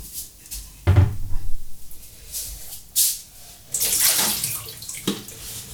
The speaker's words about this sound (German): So. Wasser ist wieder raus aus dem Tank.